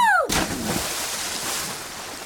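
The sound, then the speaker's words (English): A quick descending whistle drops into a loud splash as Happy Hippo jumps into the water to find the little chicken, followed by a couple of seconds of sloshing, churning water fading slowly. No one talks. “Happy Hippo jumps into Come the water bunga! to find the little chicken.”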